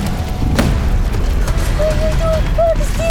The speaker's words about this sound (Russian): Горячо! Огонь, пыль, дым! Матросы пушки заряжают, стреляют.